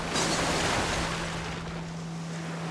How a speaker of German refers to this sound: Land unter. Wellen rollen gegen die Hauswände, zerstörerisch.